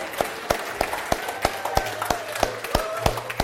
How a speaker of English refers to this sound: So let's make some noise to say thank you. Just hoot, holler, say amen, clap, thank God, praise God.